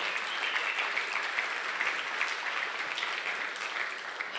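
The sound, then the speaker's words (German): Sustained applause from a crowd at a church event as a speaker is called onto the stage, a dense, steady patter of many hands clapping at even loudness throughout, with no voices over it. “Applaus bitte.”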